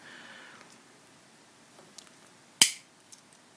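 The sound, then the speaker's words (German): A single sharp metallic strike of a hammer on a rivet setting tool while setting rivets, loud with a short ringing decay, between a few faint clicks and handling noises. “Also Nieten kann man wohl auch mit der Vario-Zange anbringen, äh, wenn man dann den entsprechenden Aufsatz hat. Der okay. wäre jetzt hier nicht mit dabei, der ist hier zum Hämmern.”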